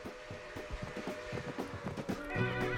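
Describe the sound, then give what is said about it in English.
A horse in Yosemite neighs loudly, a shaky rising whinny that trails off, with a few soft thuds of hooves shifting underneath. “So the next time you're in the park, how about taking some time to stop by and say hello to the horses and mules of Yosemite?”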